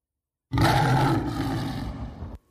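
A demonic dog-like creature possessing a woman lets out one loud, deep, growling roar, sustained for about two seconds before cutting off abruptly. Alone, with no talking.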